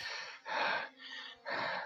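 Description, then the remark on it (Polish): Heavy, gasping breaths, four in quick succession, alternating between louder, harsher inhales and softer exhales, with no talking, as a person breathes to calm down. “Tak oddycham, po prostu y, to, to zrobiłam bardzo, że tak powiem, y, totalnie o tym nie myśląc, że coś stało.”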